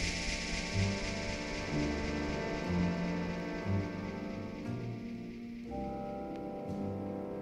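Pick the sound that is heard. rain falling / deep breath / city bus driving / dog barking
rain falling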